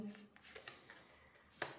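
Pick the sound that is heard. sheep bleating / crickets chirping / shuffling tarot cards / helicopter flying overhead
shuffling tarot cards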